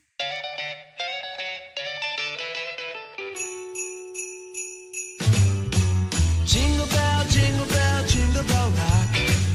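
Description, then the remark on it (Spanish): A Christmas song with jingling bells: a bright melodic intro, then a run of high tinkling bell notes, before a full band with heavy bass kicks in and keeps playing. “ok, ahora quiero que escuchen esta canción.”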